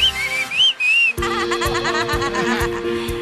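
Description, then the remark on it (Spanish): Two short, sliding mouth whistles ring out clearly up front, then give way to a loud, busy burst of wavering, laughter-like sounds with rhythmic thumps underneath. “No chifló con la boca, ¿eh?”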